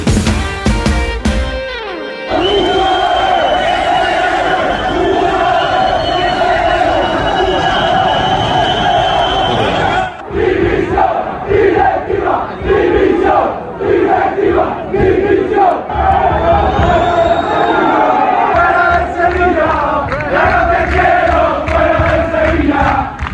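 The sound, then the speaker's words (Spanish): A large stadium crowd of Sevilla supporters chants loudly in unison at a home match that Sevilla lost 0-3 to Getafe, rhythmic shouted phrases repeating over a dense roar of voices, with sharp whistles cutting through at times and no pause in the noise. “Pues es el sonido del convulso Sevilla, que este fin de semana perdía 0-3 en casa ante el Getafe.”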